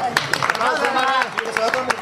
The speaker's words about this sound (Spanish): Nada, pues, pues nada, si te damos un aplauso porque te lo mereces por aguantar.